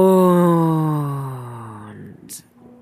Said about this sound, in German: kann auch ein Gähnen kommen, ein tiefer Ausatmen.